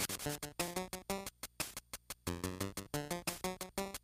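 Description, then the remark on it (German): Upbeat video game forest theme music with short, punchy notes bouncing in a steady rhythm, bright and fairly loud, with no voices over it. “Zum Beispiel im Hintergrund hört man jetzt gerade das Thema von, von, von, von die Wälder”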